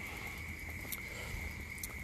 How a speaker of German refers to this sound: oh jetzt regnet es hier, aber hallo ey.